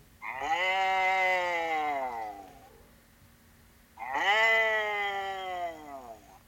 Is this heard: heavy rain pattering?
no